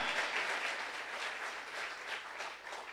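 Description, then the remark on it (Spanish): A crowd at a sermon applauds the Lord steadily, a dense wash of many hands clapping at once, sustained and fairly loud for a few seconds with no voices standing out. “Que alguien aplauda al Señor, porque Él confortará tu alma.”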